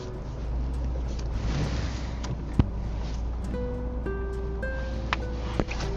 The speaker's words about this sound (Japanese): 今日なんか車多いです本当に冗談抜きでなんでなんでだろうって言いたくなる